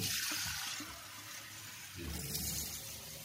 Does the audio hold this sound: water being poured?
yes